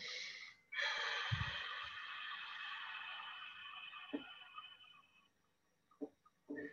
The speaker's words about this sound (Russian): Для этого есть рефлекторные способы. То есть, это дыхание, да? через выдох через рот – максимально длинным.